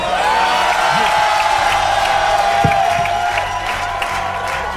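A large concert crowd in Paris roars with sustained cheering and dense applause, loud and continuous throughout, with a long high whistle or shout sweeping above the noise.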